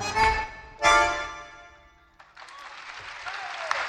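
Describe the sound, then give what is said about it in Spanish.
A tango played with bandoneon ends with two bright, sustained instrumental chords that ring out and fade, then an audience breaks into steady, full applause that fills the rest of the moment with dense clapping. “Fuerte el aplauso para el maestro Gabriel Fernández en el bandoneón.”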